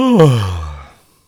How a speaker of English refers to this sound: is that an, is that a word or is it just a sound? Uh, it, it's just a yawn. That's my word.